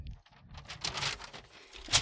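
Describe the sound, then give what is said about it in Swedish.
Crinkly paper rustling as a thoracic surgeon unfolds a resting ECG printout, with irregular bursts of crisp, papery crackle and a sharper rustle near the end. No one speaks. “prasslar upp det här ordentligt nu.”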